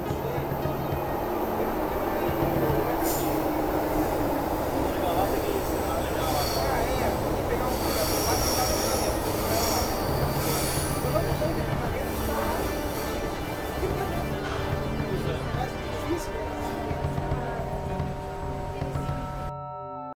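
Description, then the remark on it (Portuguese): A metro train running between Portuguesa Tietê and Carandiru stations rumbles steadily along the track for the whole stretch, loud, with high, drawn-out wheel squeals and a whining motor tone riding over the roar before it cuts off abruptly. “Desembarque pelo lado direito do trem.”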